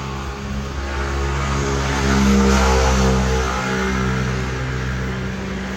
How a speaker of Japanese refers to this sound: 結構あの交通量が多いので話していません